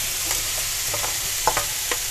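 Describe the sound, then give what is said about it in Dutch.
Cognac rice being scraped from a blue-and-white bowl and stirred in a sizzling wok during home cooking: a steady, bright frying hiss runs throughout, broken by several short scraping clicks from the stirring at an uneven pace. No one speaks. “Ik heb cognacrijst. Wobbly wobbly. In de wok ermee.”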